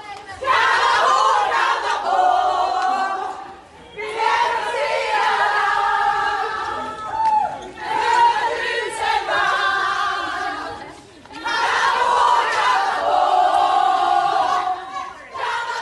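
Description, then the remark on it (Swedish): Sweden's women's national football team chants a celebratory chant together after winning bronze at the football World Cup, in loud, rhythmic bursts, four shouted phrases separated by short pauses, crowded voices with an echoing, energetic feel. “Ja, det, nu, nu, har, nu har eh, vår ramsa från Rydelapp eh, tagit sig hela vägen in i även damlandslaget då,”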